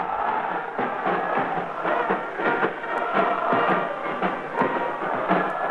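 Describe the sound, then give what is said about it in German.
A large crowd at a torchlight rally on the Kaiserplatz cheers and roars continuously up to the windows after Hitler became Reich Chancellor on 30 January, a dense wash of many voices with rhythmic surges like chanting or marching, Heil cries and faint sharp accents throughout. “Sie hören jetzt immer Jubel zu den Fenstern herauf.”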